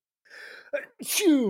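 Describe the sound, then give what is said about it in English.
A single loud sneeze: a couple of sharp inhaled gasps build up, then a bright explosive burst that trails off into a voiced tail. “excuse me, I'm about to Oh, bless you.”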